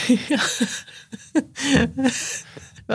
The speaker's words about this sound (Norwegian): Gjesp og glatt av. Hva, hvorfor gjesper du? Kan ikke starte med å gjespe.